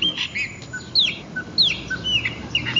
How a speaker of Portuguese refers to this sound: estou aqui na praça, centro da cidade. Vocês vão ouvir carros passando. Um passarinho cantando aqui, uma árvore do lado ali, um braço preto.